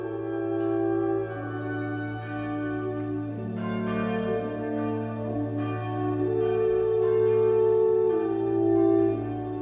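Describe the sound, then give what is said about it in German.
A large church bell tolls steadily at noon on a Sunday, each strike landing every second or two while the deep, humming resonance of earlier strokes keeps ringing underneath, fairly loud and with no voices. “Sonntags um zwölf schlägt immer eine Glocke an.”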